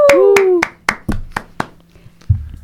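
Brief applause for a prize-draw winner, about seven sharp, steady hand claps, loud and evenly spaced. A voice lets out a gliding whoop over the first few claps, and a dull low thump follows at the end.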